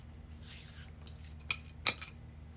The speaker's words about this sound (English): Okay. I'm shuffling my tiles here.